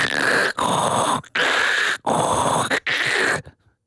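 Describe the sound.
A voice imitates heavy, mechanical respirator breathing through a helmet: four loud, raspy hissing breaths in steady in-and-out rhythm, with a hollow, filtered edge and no talking.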